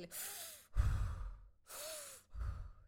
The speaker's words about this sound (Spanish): Cuando empezamos con el simple, con el respirar, eh, uno, dos,